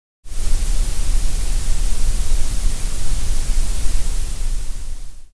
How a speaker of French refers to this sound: ce bruit parfait pour notre oreille et celui-ci est référencé sous le vocable de bruit gris